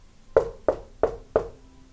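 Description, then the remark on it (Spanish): Four firm knocks on a wooden door, evenly spaced about a third of a second apart, fairly loud with a short hollow ring after each, alone with no voices; companions knocking on a young seminarian's room door in the afternoon. “Por la tarde, sus compañeros, al tanto de lo que ocurría, fueron a tocar a su puerta”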